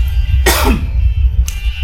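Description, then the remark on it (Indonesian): A harsh cough from an itchy throat with a raspy throat-clearing rattle, followed a second later by a brief, softer catch of the throat, over a low steady background hum. “Batuk aman ya, itu bukan covid teman-teman, itu nah, karena nah.”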